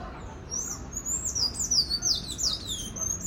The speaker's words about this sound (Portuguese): Vocês estão ouvindo o pássaro? Vou abrir aqui para vocês ouvirem. Deixa eu ver se ele canta para vocês também. Tão lindo, meu Deus.